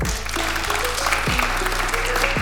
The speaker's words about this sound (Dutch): Applaus voor de heren. Applaus voor de heren.